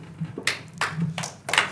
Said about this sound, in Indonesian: Tepuk tangan terus nih.